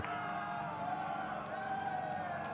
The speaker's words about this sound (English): The crowd roared with cheers and jubilation.